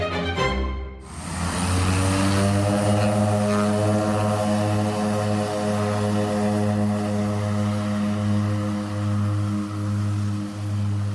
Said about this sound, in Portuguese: aterramos em Lisboa, num avião, inevitavelmente, mas aterramos e a minha pergunta é esta: aterramos onde?